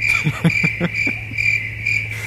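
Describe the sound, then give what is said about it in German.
A steady loop of cricket chirping, a continuous high trill with faint pulsing and a low hum underneath, plus a few soft knocks near the start. “Grillen, du brauchst Grillen.”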